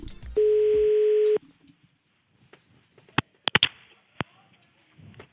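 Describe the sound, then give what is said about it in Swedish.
A single steady ringback tone of an outgoing phone call made from the Mix Megapol Göteborg radio show sounds for about a second. It is followed by quiet line noise and several sharp clicks, like a receiver being picked up. “Vi ringer upp en kille som har varit ute i trafiken och eh, gjort sig skyldig till en förseelse.”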